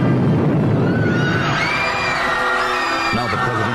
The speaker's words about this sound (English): one of the ornaments off the tree and hurls it high into the night sky, where it explodes harmlessly with a roar.